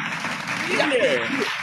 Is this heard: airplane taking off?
no